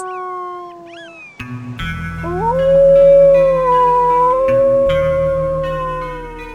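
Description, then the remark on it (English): Coyotes howling together, a few quick rising yips giving way to long, wavering overlapping howls that hold steady and loud, with a low rumble underneath and no talking. “Naming them helps her keep track of their individual behaviors, movements, and of course, sounds.”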